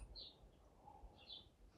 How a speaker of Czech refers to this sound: Ne, píská pes.